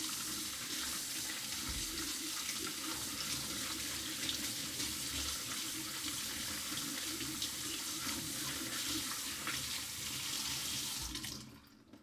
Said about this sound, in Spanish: La mañana siguiente, vierto la jarra de almendras remojadas en un colador y las enjuago rápidamente bajo el grifo de la cocina.